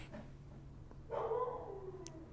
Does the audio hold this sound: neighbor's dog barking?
yes